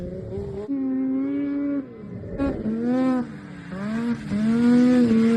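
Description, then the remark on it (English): A racing snowmobile engine in a Masters 50 class race on a lake by Fosston screams loudly, its buzzing pitch climbing and dropping through several hard revs and gear shifts, with no talking over it. “this went to a real snowmobile”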